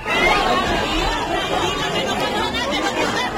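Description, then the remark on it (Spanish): A dense, agitated crowd clamors continuously during the fire of the religious image at the Pollinica procession, many voices overlapping into a loud, anxious babble with no single speaker standing out, unbroken throughout. “Este es el sonido de los momentos de angustia que se vivieron durante el incendio de la imagen.”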